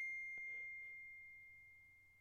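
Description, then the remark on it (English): A single bright electronic ding from a phone receiving a text message rings out at the start and lingers as a steady, fading tone, with a faint low hum underneath and no talking. “Sorry, I got a text. I didn't mute my phone.”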